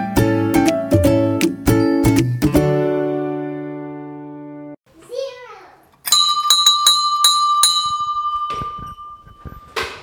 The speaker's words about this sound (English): Well, good morning, folks. There is the school bell.